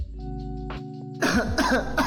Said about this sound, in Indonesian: selalu batuk. Ya, selalu batuk. ya, gue jas jus lagi batuk lagi seperti biasa batuk.